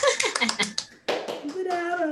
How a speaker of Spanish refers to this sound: Muy bien, pues muchas gracias y un aplauso.